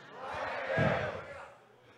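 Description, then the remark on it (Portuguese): An audience shouts "glória a Deus" (glory to God) together in a loud, sustained collective cry that swells in the middle and fades. “Posso ouvir um glória a Deus?”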